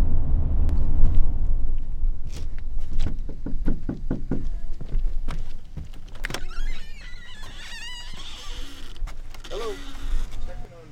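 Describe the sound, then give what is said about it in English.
A school liaison looking for absent students knocks firmly on the door of a home on a reservation, the knocks ringing out over a low, steady rumble like an idling vehicle, followed by quieter outdoor sounds with faint chirping. “Nobody answers the door at the first two.”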